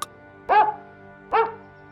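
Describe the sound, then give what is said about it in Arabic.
A dog barks twice, two short, full-bodied woofs about a second apart, clear against a quiet background with a faint steady hum; a dog on the road. “قابل كلبا في الطريق”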